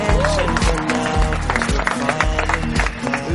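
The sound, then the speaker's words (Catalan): An audience claps and cheers steadily, welcoming a man who dances, sings and acted as David in the TV series Benvinguts a la Família, while loud upbeat music with a pounding rhythmic beat plays over the applause throughout. “rebem amb un fort aplaudiment a un home que balla, canta i que segur que ho heu vist interpretant en David de Benvinguts a la Família, el gran Leti Un aplaudiment!”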